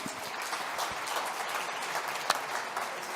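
An audience claps steadily, a dense wash of many hands at an even, moderate loudness with no voices over it, and one sharper clap standing out near the end.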